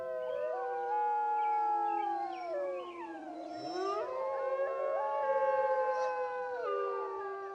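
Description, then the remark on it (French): A chorus of wolves howls in different regional dialects, several long overlapping wavering cries rising and falling at different pitches, sustained and fairly loud throughout with no talking. “ce sont des hurlements de loups dans différents dialectes”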